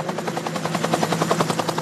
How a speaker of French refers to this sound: le blessé qui est amené d'extrême urgence à l'hôpital avec l'hélicoptère.